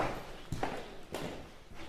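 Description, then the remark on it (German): Several hard footsteps of a man leaving a museum strike at an unhurried pace across the reverberant space, each step sharp and clear against a low background hum. “Alain Pages schickt sich an, das Museum zu verlassen. Nach einigen Schritten bleibt er stehen”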